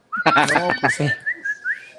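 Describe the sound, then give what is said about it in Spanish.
A short burst of laughing voice gives way to a clear whistled tune of a few quick rising and falling notes, trailing off after about two seconds. “Sí, de, dijo el charrascas, pero con silbidito.”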